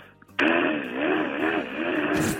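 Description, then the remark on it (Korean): On Park Myung-soo's Radio Show, a voice imitates a power drill boring through during a neighbour's interior renovation: a sustained buzzing whine with a wavering, oscillating pitch that holds loud and steady for about two seconds after a brief quiet start. “인테리어 하는데 드릴로 뚫는 소리.”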